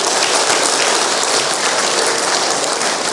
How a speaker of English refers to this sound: wow, don't they deserve a round of applause?